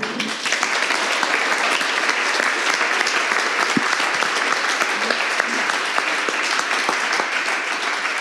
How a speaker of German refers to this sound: Applaus für Jonas Baumann.